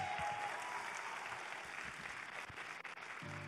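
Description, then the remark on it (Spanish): A church audience applauds God steadily, a dense wash of many hands clapping together at moderate volume for a few seconds with no voices standing out. “Oh, yo no sé, yo estaría dándole un aplauso más fuerte a Dios en este lugar.”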